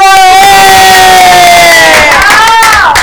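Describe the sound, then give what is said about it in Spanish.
A loud crowd cheers and whoops continuously for a few seconds, a sustained wall of excited voices with a dense noisy roar underneath, like a canned applause-and-cheer effect. “Chicas, dice Ramiro Ibarra, a eso este se merece un aplauso.”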